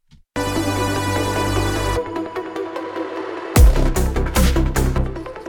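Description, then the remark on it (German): Music where a sustained synth chord suddenly blooms into a long, washy reverb tail as a Valhalla Room reverb plugin, at 0% mix until then and set to reverb mode LV426, is pulled up to full. The tail lingers after the notes stop before loud drums and full instrumentation crash back in. “Und hier wird nämlich der Valhalla-Ruhm, der die ganze Zeit im Mix auf 0% ist, auf einmal voll nach oben gezogen.”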